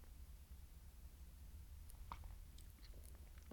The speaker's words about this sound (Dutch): Even een slokje water drinken.